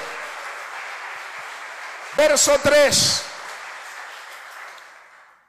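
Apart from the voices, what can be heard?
audience applause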